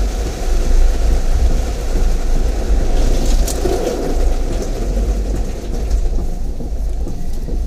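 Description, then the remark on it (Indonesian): Heavy rain pours down steadily in a dense, continuous wash of noise, loud throughout, with a deep rumbling low end and no voices. “wow deras sekali hujannya”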